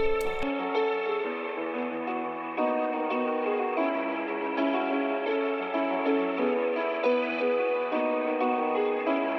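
An instrumental hip-hop intro plays steadily and fairly loud, with layered, sustained melodic tones coloured by distortion and echo-like effects, and no voices.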